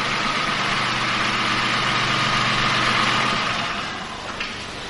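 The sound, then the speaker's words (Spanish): A car engine idles with a steady low rumble and broad hiss, holding even for several seconds before easing off and quieting near the end as the car pulls into a garage and parks in its space. “Más tarde entra en un garaje con el vehículo y saluda al portero del edificio con la mano. Llega hasta su plaza y aparca.”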